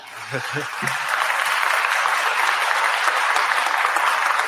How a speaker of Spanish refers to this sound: ahora sí, te dejo, si quieren, creo que alguien vio la intención de aplaudir, si quieren aplaudir, y si no, esperamos al final.